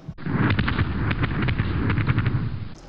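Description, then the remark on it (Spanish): Fireworks explode in a loud, dense barrage, overlapping booms and sharp cracks rattling off in quick succession for a few seconds with no pause and no voices. “El fuego artificial de la discordia cae de nuevo.”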